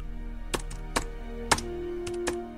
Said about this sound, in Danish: Op til computerne. Jeg trykker lige på nogle taster, så det lyder, som om vi arbejder.